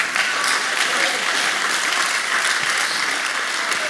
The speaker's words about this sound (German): Danke für den einen traurigen Klatscher hier im Raum.